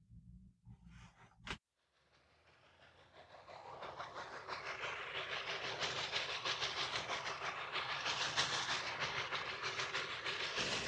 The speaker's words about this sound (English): The track didn't have a turnaround at the end either. So, for the return trip, the engineer backed the train up the whole way.